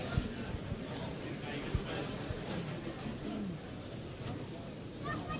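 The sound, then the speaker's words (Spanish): A few sharp wooden-metal knocks from a processional float's hammer knocker ring out over the murmur of a crowd, with people talking throughout, as the float makes its way through the streets toward the Plaza del Cristo de Burgos, broadcast on Canal Sur. “Suena el martillo.”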